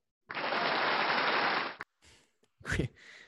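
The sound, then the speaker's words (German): A dense burst of clapping applause played in as a sound effect on a German show, standing in for a studio audience absent because of Corona, loud and steady for about a second and a half, then cuts off abruptly, followed by a few short breathy sounds. “Applaus. Können wir einen Applaus einspielen?”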